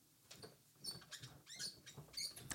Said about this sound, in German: ich gebe ihm noch mal einen kleinen Auftritt hier im Apfelfunk, meinem Holzstuhl, meinem quietschigen Holzstuhl